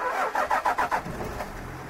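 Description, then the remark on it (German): A car engine cranks with several quick rhythmic bursts from the starter, then catches and settles into a steady running hum as the car sets off on the drive from Asmara to Keren in Eritrea, moderately loud. “Drei Stunden dauert die Fahrt mit dem Auto von Asmara nach Keren.”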